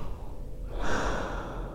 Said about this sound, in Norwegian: Sånn her høres det ut å puste i ei gassmaske. Så om man har den på, så alt blir jo litt vanskeligere. Du får litt dårligere synsfelt. Eh, du må jobbe mer for å, for å få med det ting, både for å høre godt.